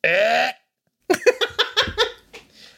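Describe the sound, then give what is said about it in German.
A voice imitates a European hedgehog's squeak with one short, high, nasal squeal lasting about half a second. After a brief pause, bursts of rhythmic laughter follow. “Möchtest du das auch einmal kurz für die Hörer auch imitieren, was wie Herr … den Igel nachmacht?”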